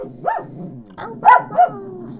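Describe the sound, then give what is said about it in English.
A dog barks several times in quick, uneven bursts, with low growly rumbling between the loud yaps; no one speaks. “He's such a good guard dog.”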